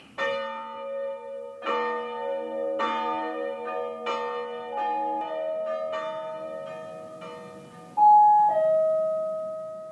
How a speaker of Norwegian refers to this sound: Klokkene ringer for representantene på Stortinget, og alle haster inn i salen for å stemme.